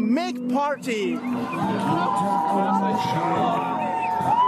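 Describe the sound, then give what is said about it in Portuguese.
A loud crowd at the carnival in Cologne, Germany, shouts and cheers, many overlapping voices whooping and yelling together in a continuous, lively roar with sharper cries rising above it. “Temos de gritar Alaf.”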